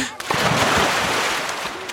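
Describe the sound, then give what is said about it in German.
A sudden splash as two people jump together into cool water on a count of three, followed by a loud churning, bubbling wash of turbulent water that continues for a couple of seconds. “Lass mich einmal kurz ins Wasser springen, ja.”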